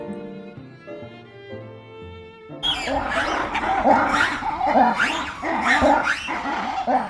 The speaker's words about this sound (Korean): 각종 동물 소리로 시끌벅적한 이곳은 버지니아주 비엔나에 있는 로얼즈 주파리입니다. 이곳은 이름대로 동물원 주와 자동차를 타고 다니며 야생동물을 구경하는 사파리를 동시에 경험할 수 있는 곳인데요.